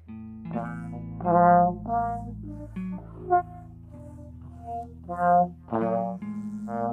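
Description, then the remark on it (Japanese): A trombone plays a short series of sustained notes, stepping upward and then back down, bright with no talking over it; the breath speeds up as the notes rise, and the tone splats slightly on the way down. “上がっていく時と下がっていく時のその音色をねあんまりこう変えないようにあの気をつけてるんですよだから今、えー、今下がっていった時にこういうふうにビチャってこう音がなっちゃってるじゃないですか”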